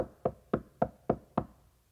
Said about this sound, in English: a knock came at the door. It's a baker, a local baker.